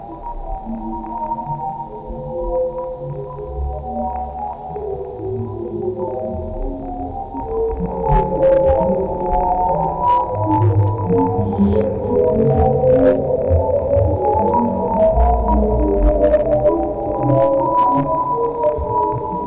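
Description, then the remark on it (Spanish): A sonification of Hubble Space Telescope deep-space data, with sound varying from the lowest to the highest pitches: layered, shimmering tones drift and overlap in a dense, droning wash, with brief bright pings scattered above, swelling slightly louder midway. No voices. “Es lo que vamos a escuchar en este momento con el Hubble en el espacio profundo.”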